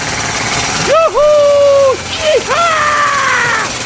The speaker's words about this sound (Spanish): Aquí voy a tener, necesitar un poco de taladro.